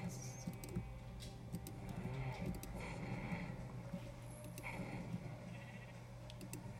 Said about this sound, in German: Schafe, Schafe. Ich hab ein Schaf und das schleudere ich jetzt gegen den Baum.